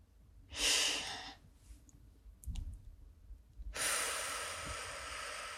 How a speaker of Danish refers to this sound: Så nu må du gerne lige tage en dyb vejrtrækning helt ned i maven.